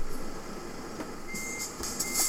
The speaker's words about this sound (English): I'm a huge, hulking, great big long truck driving right across all of the roads in Poland